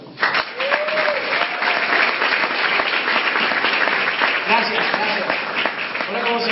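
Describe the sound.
A large crowd bursts into sustained, dense applause, a loud continuous wash of clapping that holds steady for several seconds, with faint cheers and voices mixed in.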